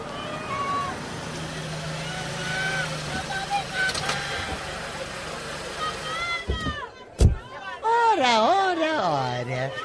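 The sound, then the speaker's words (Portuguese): An angry crowd of aggrieved people gathered in front of the Bracho mansion with signs, Molotov cocktails, stones and sticks shouts nonstop in a loud, dense babble of overlapping voices. A sharp bang cuts through, then single raised voices yell in rising and falling cries over the din. “Enquanto isso, as pessoas lesadas se aglomeraram na frente da casa, com cartazes, coquetel molotov, pedaços de pedra, paus e gritavam sem parar.”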